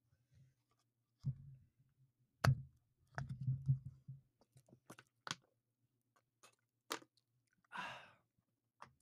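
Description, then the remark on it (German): Quiet handling of a bottle of Fruchtiger soft drink, with a few dull thumps and sharp clicks, then a short burst of fizzy hiss as the cap comes off. No one speaks. “Das andere war eine Flasche Fruchtiger.”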